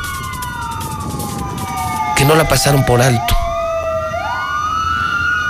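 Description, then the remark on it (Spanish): Police sirens from patrol cars and motorcycle units wail continuously in front of a funeral home as a police caravan bids farewell to a dead colleague, several overlapping tones sliding up and down, loud, while a man speaks briefly over them. “Este es el sonar de las sirenas, unidades, ¿no? Patrullas y Pegasos frente a la funeraria.”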